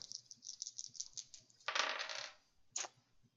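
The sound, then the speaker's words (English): Dice clatter across a hard tabletop: a run of small rattling clicks builds into a busy tumbling burst, then one last sharp tap as they settle. Fairly loud, with no talking. “so i've got three dice and you've got four”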